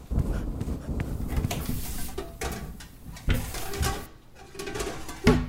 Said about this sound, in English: Bring up as many pots and pans as you can carry. The roof is leaking everywhere.